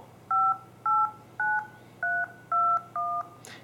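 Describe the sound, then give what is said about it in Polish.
Six steady two-pitch keypad beeps from a mobile phone being dialed, each key having its own tone, each about a quarter second long with short, even gaps, clear with no voices. “Jeżeli włączycie sobie komórkę i weźmiecie, ustawicie wybieranie numerów, każdy klawisz ma swój ton.”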